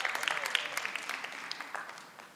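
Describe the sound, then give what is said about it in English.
An audience claps together in a dense patter of many hands during a talk about the Bible, moderately loud at first and gradually thinning and fading over a couple of seconds, with no voices over it. “You don't need to clap.”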